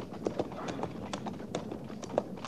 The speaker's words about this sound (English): Ah, that'll be Harrison riding in, Captain.